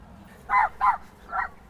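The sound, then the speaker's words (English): Three sharp barks from the dog Miggins, chasing off a dog about four times her size, ring out in quick succession, the last after a brief pause, clear over a low background hum. “Miggins just chased off a dog about four times the size.”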